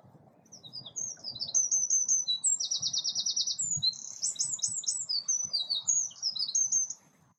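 Birds chirp and twitter outside a balcony, a continuous run of high, quick tweets and buzzy rapid trills over a steady low background rumble, with no one speaking.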